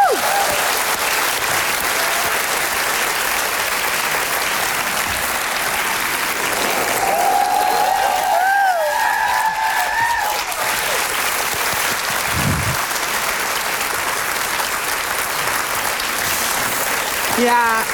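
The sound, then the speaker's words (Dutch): Sustained applause from a live audience, a dense steady wash of clapping that stays loud for the whole stretch, with a few cheers and whistles rising above it partway through. “Mensen, mag ik een heel groot applaus dat jullie hier vanavond waren voor jezelf.”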